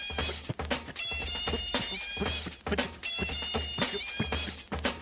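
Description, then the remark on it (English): Mouth-made percussion plays a steady, looping beat: punchy low kick thumps and sharp clicky snares, with buzzing, whistly vocal tones running through it, loud throughout and with no speech. The beatboxing is done by the host of the Weekend Crunch radio show. “That's me beatboxing, ladies and gentlemen.”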